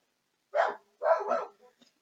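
A dog named Eddie barks a few times in quick succession, a single bark followed by a doubled one, clear, with nothing else around it.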